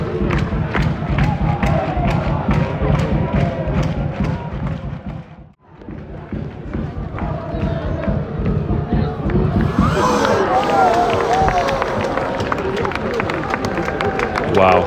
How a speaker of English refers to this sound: The fans are cheering, getting a free kick almost like it's like getting a goal. So you can tell how much it means at the moment.